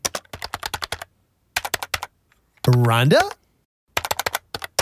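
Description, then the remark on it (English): Bursts of rapid, clicky keystrokes on a computer keyboard, heard over a meeting call line, come in several clusters, broken by pauses, with a single voice briefly calling out in the middle. “we can hear you typing.”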